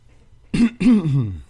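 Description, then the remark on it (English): A person clears their throat twice in quick succession, a short rough burst followed by a longer, gravelly rasp, fairly loud with no other sounds around it. “so you, you can't even clear your throat.”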